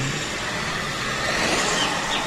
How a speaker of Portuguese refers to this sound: mais uma vez, tu te impressiona com a velocidade que eles alcançam na reta. Rapaz, tu olha aqueles carros é, passando é, numa velocidade extrema e imagina como é que pode, né, cara? cara se arriscar.